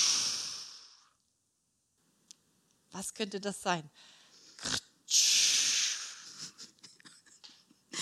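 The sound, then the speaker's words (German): A voice imitates a toilet flush with two long, loud rushing hisses, one at the start and one near the middle, separated by silence and a short spoken question. “Das ist die Klospülung, wenn wir vorher noch kurz ja, zur Toilette müssen.”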